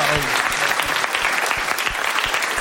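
A steady burst of audience applause, dense clapping at a fairly loud, even level throughout, with a few deeper thumps scattered through the noise.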